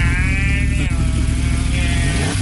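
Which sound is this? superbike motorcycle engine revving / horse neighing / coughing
superbike motorcycle engine revving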